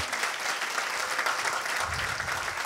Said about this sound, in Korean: 오늘 저 모자가 간만에 남녀가 껴안고 자기로 했다 고 그러니까 박수 좀 한 번 쳐주시고요.